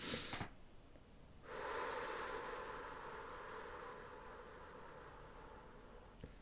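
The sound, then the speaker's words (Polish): A quick, sharp intake of breath through the nose, then a long, steady exhale that hisses on for several seconds, with no talking; a relaxation breathing technique in which the exhale is longer than the inhale. “Krótki, gwałtowny wdech, długi wydech.”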